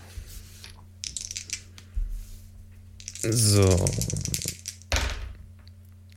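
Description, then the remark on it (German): Rapid clattering clicks of dice tumbling across a dice mat for a few seconds, followed by a person speaking briefly over a low steady hum. “Ich hole mir mal die Würfelunterlage.”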